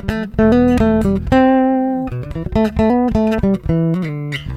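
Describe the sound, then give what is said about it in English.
A maple-neck, Fender-style electric bass is slapped in a funky solo riff, with bright, percussive attacks on each note and a few longer ringing tones between quick popped hits. No one speaks. “I even slapped it a little bit. The maple neck, I couldn't resist.”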